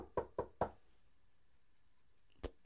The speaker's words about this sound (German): Gut, dann, ähm, ja, dann klopfe ich einfach mal an der Tür. Ja, du klopfst.